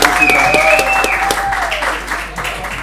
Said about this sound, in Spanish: Bienvenidos. Bienvenidos, aplausos. Bienvenidos.